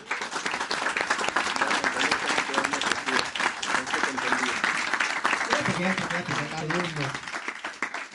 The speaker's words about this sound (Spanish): Voy a pasar. Aplauso para salir.